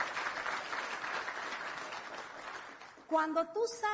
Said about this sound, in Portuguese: para quem eu peço um forte aplauso e que é parte da nossa equipe de apoio.